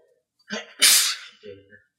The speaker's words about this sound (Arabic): يرحمك الله